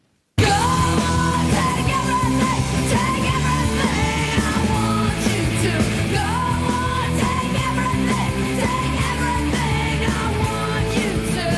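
Recorded screaming played as an example: loud, raw screaming held almost without a break for about eleven seconds, its pitch wavering up and down, sounding dense with no talking.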